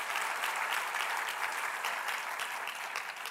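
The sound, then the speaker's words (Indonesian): An audience claps steadily in praise of Jesus, a dense, even wash of many hands slapping at once, sustained at a fairly loud level without pause and with no voices standing out. “Berikan tepuk tangan yang meriah bagi Yesus Tuhan kita.”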